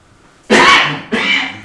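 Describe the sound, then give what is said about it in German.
A loud sneeze: a sharp explosive burst followed a half-second later by a second, slightly softer blast, with no talking. “Gesundheit.”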